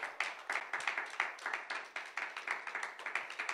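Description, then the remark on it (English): An audience applauds God for his word with steady, dense clapping, many hands overlapping in a fairly even rhythm at moderate loudness, with no voices standing out. “Give God a round of applause for his word.”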